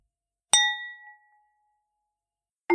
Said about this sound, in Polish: a na końcu pyknę sobie jeszcze raz tym pustym kieliszkiem, ponieważ ten dźwięk bardzo mi się podoba.